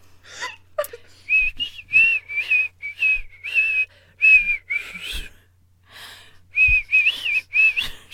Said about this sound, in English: Okay. Are you ready? Yeah, I'm ready. oh, I'm whistling evil, even worse than normal tonight.